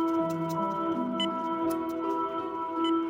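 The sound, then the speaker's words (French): Hospital machines hum with steady electronic tones beside a patient's bed, a few brief higher blips cutting in now and then. The sound is constant, with no voices. “Je suis dans un lit et j'entends bip bip bip bip truc truc. Enfin bref, il y a des machines qui font des bruits.”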